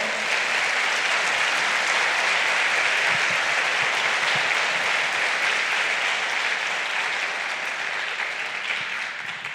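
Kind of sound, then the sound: crowd, audience applauding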